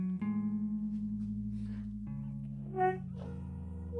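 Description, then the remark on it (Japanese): A trombone holds a sustained, steady high C-flat note, a note hard to hit on the trombone, for about four seconds, its pitch wavering and shifting slightly a couple of times, with a brief brighter swell near the end. No one speaks. “その間の音でちょっとね難しい音があるんですよ。なそれが何かっていうと、えー、C のフラットですね。”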